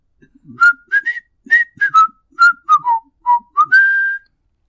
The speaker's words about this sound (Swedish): om jag skulle be dig vissla ledmotivet i filmen, skulle du klara det då? Det, det kan jag göra, definitivt.